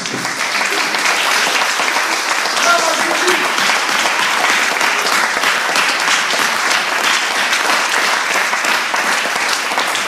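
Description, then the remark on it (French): Renewed loud, sustained applause from a large audience following a speech about the work of Jesus fills the whole stretch, a dense roar of clapping hands that holds steady without letting up. “Retonnerre d'applaudissements.”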